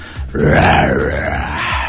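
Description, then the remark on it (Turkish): A voice imitates a lion's roar: one loud, rough, growling cry lasting about a second and a half, its pitch swelling upward and then sinking as it fades, with no talking. “Aslan kükremesi de benim diyen delikanlının aklını alır.”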